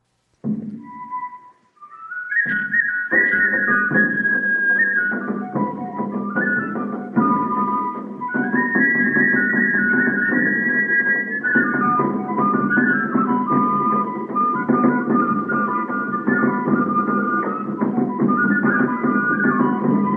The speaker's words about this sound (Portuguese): A segunda marcha se chama Marcha Simples. Vamos ouvir.